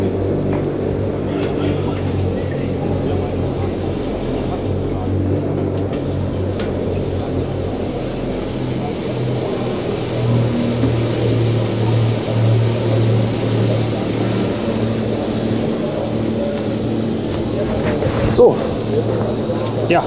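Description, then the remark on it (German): A steady, loud mechanical drone with a strong low hum and a broad hissing spray layer from an agricultural sprayer with a loud pump, running continuously at the Agritechnica trade fair, with faint voices in the background. “Das war das ähm, Sprühzeug auf der Agritechnica, was irgendwie zu viel Gesprühe war, um es reinzunehmen. Ja, die Pumpe war auch so laut, ne?”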